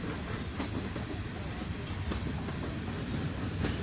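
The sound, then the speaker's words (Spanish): A train rumbles steadily along the tracks, a continuous broad roar with occasional clacks of the wheels over rail joints, fairly loud throughout, with no talking. “En este momento estamos en una transmisión en vivo fíjense, ahí estaba el tren, la gente no creía.”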